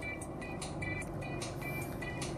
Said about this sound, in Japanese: あ、また、電車、電車来よるか違った。車やった。